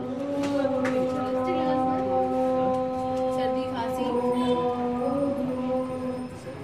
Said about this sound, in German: wir hören hier gerade Tempelmusik, die heute früh über den See schallte.